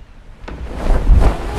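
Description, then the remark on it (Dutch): Wind buffets the microphone, a low, rushing roar that swells and grows louder over a second or so, with no voices present. “Oh, wind? Zo, wind.”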